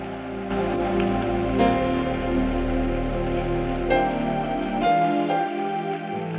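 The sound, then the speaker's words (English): A church audience gives a clap offering to God in a dense, steady wash of applause that holds at a loud, even level throughout, with sustained musical chords playing underneath and no one talking. “Well, shout unto God and give somebody a clap offering.”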